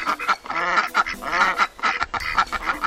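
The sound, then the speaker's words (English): Mallard ducks at a farm in Cornwall quack repeatedly in a steady, overlapping stream of loud, nasal calls, continuous with short pauses, no voices present. “These Cornish ducks communicate in long, relaxed quacks.”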